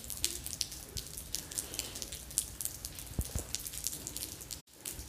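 Rain drips steadily from a gutter, scattered droplets tapping over a constant soft patter of rainfall, with a brief dropout near the end. Recorded in the mountains at Mikawa, about an hour's drive from Shizuoka City, Japan.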